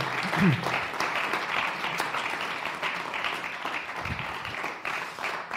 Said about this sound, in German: Hier einen großen Applaus für euch da hinten. Ihr macht einen großartigen Dienst. Dankeschön.